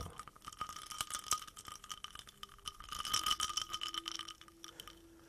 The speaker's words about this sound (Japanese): どうなんだこれ期待の期待して購入したんだけどああうん氷の音だと割とまだわかるかな。